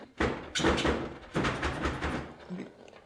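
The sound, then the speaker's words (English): A kitchen drawer is shaken hard, making several loud rattling clatters in quick uneven bursts that fade slightly toward the end. “And she would do this thing where she would uh, she would shake the drawer”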